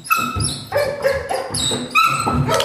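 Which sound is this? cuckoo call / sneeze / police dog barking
police dog barking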